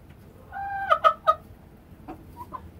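A hen named Karolina III clucks: a drawn-out nasal note breaks into three sharp, loud clucks in quick succession, followed by a couple of softer, brief clucks.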